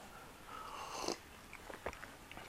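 Someone chewing and biting food while eating lunch, a few soft, irregular crunchy bites and mouth clicks over a quiet background, with no talking.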